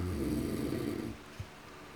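A man snores in his sleep on a hot night, with one long, rumbling inhale lasting about a second, followed by a quieter breath and a faint snort, with no talking.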